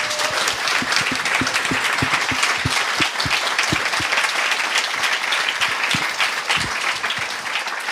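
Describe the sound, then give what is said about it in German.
A conference audience applauds itself steadily for the whole stretch, a dense, loud wash of many hands clapping with individual sharp claps popping out of the roar. “Deshalb ja, gebt euch selber mal einen Applaus.”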